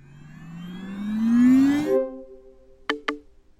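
An electronic startup tone from a house's smart home system, told to activate again and initialising: a buzzy, harmonic sweep rising steadily in pitch, then settling into a sustained hum punctuated by two quick, bright blips. No one speaks.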